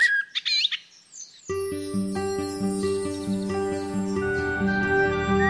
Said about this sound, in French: Aiguisons notre oui et ouvrons l'œil toute l'année dans la capitale, le merle noir chante et fréquente les pelouses des espaces verts en quête de son mets favori, le lombric.